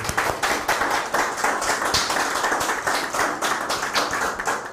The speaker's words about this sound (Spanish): Bueno, pues estamos en vivo, estamos en vivo, un fuerte aplauso ahora sí, a todas las naciones.